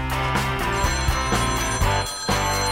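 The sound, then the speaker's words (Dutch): A telephone rings loudly and continuously with a bright, jangling bell tone, sustained over a busy, full-bodied backdrop for a few seconds, with no talking. “Oei. Ja, dat zal een advocatenkantoor zijn.”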